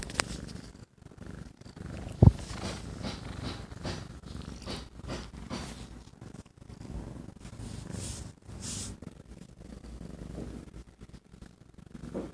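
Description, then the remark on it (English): Steady purring from cats rumbles continuously in low, soft pulses, with a brief thump near the start and no talking over it. “Why do you like biting, kitty? Listen to them.”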